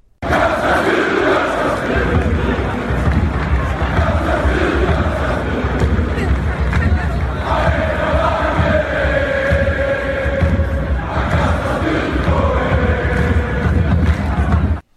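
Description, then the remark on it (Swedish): A large crowd of Malmö FF supporters sings a rhythmic chant about footballer Tobias Sana in unison, loud and continuous, with the melody rising in repeated phrases over a dense roar of voices. “Ja, eh, för att få något eh, komiskt ur det så ska vi ändå lyssna på en liten ramsa som Malmö FF gjorde om Tobias Sana efteråt.”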